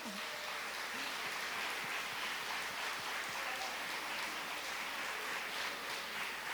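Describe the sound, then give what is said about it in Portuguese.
A church audience gives a round of applause honoring longtime women members, a dense wash of many hands clapping at an even level throughout, without any speech over it. “E eu queria pedir para as florzinhas de Jesus que ainda estão aqui, que eram daquele tempo, que se levantassem um pouquinho, que eu gostaria de honrá-las, né, com uma salva de palmas.”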